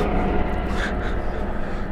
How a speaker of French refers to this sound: Hélicoptère, un hélicoptère